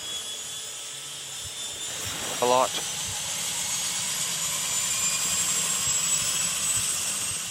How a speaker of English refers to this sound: It is time to get going on the step. Right engine is turning. 12% fuel.